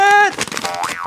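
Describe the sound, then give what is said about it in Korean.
A cartoonish boing sound effect, played in a game segment as the odd sound for a pick with no story, rings out as a bright, steady twang, then gives way to a jumble of voices and clatter, with a brief springy tone rising and falling near the end. “띠용.”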